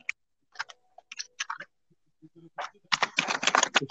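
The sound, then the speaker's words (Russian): Computer keyboard typing while someone plays a computer game: a few scattered key clicks at first, then a rapid, dense flurry of clattering keystrokes toward the end, with no one speaking. “Так, ну пока ты играешь в комп, я пока поиграю.”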